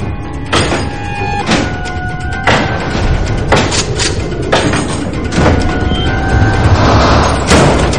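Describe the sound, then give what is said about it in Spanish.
A door in a garage is pushed shut and its bolt latched from the inside, with a string of sharp metallic clanks and thuds, some ringing briefly, over a loud, steady background rumble. “Cierran el pestillo por dentro y el joven coloca un bidón ante la puerta para obstaculizar el paso.”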